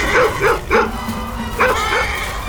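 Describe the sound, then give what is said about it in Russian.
A dog named Altai barks at horses to scare them, five quick, sharp yaps, a burst of three followed by a pause and then two more, fairly loud over a low background rumble. “Алтай, вон там лошади, видишь? Беги к ним и лай, что есть мочи”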